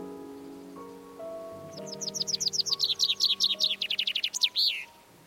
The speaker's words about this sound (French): Et Chini propose que les oiseaux ont dû longtemps évoluer avant que n'émerge la beauté de leur chant.